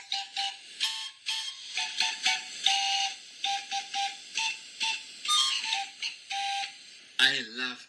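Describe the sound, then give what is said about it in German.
A modular paper organ plays a quick run of short, breathy whistling notes over a steady airy hiss, ending on a longer note that wavers up and down in pitch. “World's Pier first Orgel. modular paper organ.”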